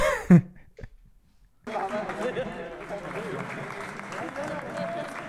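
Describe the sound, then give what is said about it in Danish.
A short vocal burst and a brief silence, then a group of people breaks into steady, dense clapping that continues to the end, with a murmur of voices mixed in. “Det, der står de også og klapper, som Jamen, nogle, de står og klapper.”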